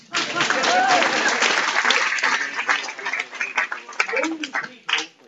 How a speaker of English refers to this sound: One great man. Give him a round of applause.